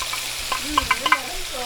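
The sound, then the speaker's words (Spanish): Meat for lomo saltado sizzling in a hot pan with oil and garlic, a steady crackling hiss punctuated by a few sharp clinks and scrapes of a utensil stirring, with no voices. “bueno, están escuchando ah, el, la carnecita se está friendo.”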